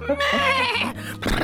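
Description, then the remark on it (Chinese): A person vocally imitates the panting exhale a horse gives when its reins are pulled after running: a drawn-out, wavering, nasal whinny-like cry of about a second, ending in a short breathy puff of air. “所以马在最后每次跑完之后，人家一拉它的缰绳，它就咩，它就要来一个”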